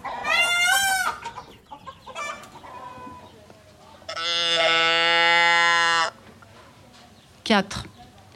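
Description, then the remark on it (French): Farmyard fowl call out: short chicken clucks scattered between two loud, drawn-out harmonic cries, one early and one sustained for about two seconds, then a brief sharp squawk near the end. A farm with fields and a vegetable garden, with cows, chickens, geese, a donkey and dozens of peacocks. “des champs, du jardin potager, des vaches, des poules, des oies, de l'âne, et aussi des dizaines de pans dont Flânerie va progressivement s'enticher.”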